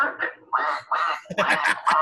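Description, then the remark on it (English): A duck quacks loudly, a quick series of about four harsh, nasal quacks with short gaps between them, the last ones running together. “You know the ducks.”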